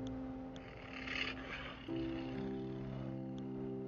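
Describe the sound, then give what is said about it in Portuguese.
A deep, rumbling growl of a large, powerful tiger approaching from afar rolls on steadily for a few seconds, fairly loud, its pitch stepping up partway through. No one speaks. “Você percebe se aproximando de você um grande e poderoso tigre. Ele vai se aproximando de ao longe.”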